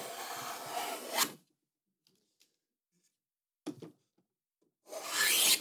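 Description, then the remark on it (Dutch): A spokeshave rasps along a wooden block on a furniture maker's table in a hall, in three broad, scraping strokes, the first and last long and steady, a short one between, with near-silence in the pauses and no talking. “En die gaat dus laten horen hoe die krul krulschaaf. Ja, krulschaaf klinkt over dat houtblok.”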